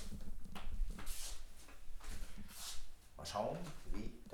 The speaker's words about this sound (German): Ich habe jetzt mal auf 15 das Schuhmikrofon, nehme mit der Reporter-App auf, auf 15 und ich habe mitte Seite an und werde mir in diesem Aufnahmemodus jetzt einen Kaffee machen.